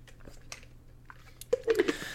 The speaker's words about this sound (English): Tiny water break. We're going to take a water break.